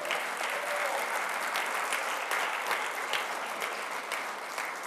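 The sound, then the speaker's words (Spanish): Loud, sustained applause from an audience, given to the Lord, a dense wash of many hands clapping steadily for about five seconds with no speech over it. “Si lo cree, dale un aplauso fuerte al Señor.”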